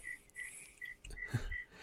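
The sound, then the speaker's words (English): A cricket chirps inside a house in short, evenly spaced high-pitched bursts, fairly quiet and steady, with a brief low thump or rumble partway through and no one speaking. “Turtle swimming around, but we can definitely hear the cricket But going live and long and strong.”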